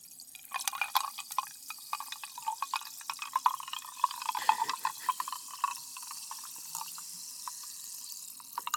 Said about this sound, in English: Snap, crackle, pop, baby. That's Topo Chico. Are you getting lit off the Topo Chico, my dude?